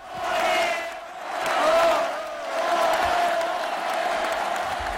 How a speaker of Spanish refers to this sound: Un aplauso para este pequeño y bravo animal.